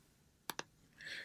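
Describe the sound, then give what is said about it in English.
A quick double click from a computer mouse, two sharp taps in succession as someone clicks to open a document on a computer, followed by a brief higher-pitched whir. No one speaks. “that very professional noise you hear is me clicking to my Google Doc”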